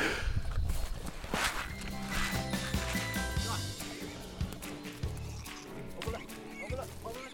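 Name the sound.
pigs squealing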